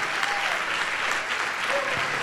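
A church audience claps steadily, dense applause at an even, sustained loudness with no pauses or individual voices standing out.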